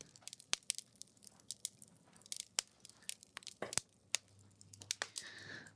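A wood fire crackles with irregular sharp pops and snaps as the sun sets at about half past eight under a clear blue sky, while faint bird chirps come through near the end. No one speaks.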